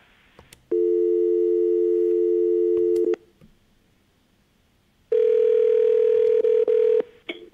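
A loud, steady telephone dial tone hums for a couple of seconds, stops, then a second, slightly higher and harsher steady phone tone sounds for about two seconds. No one speaks.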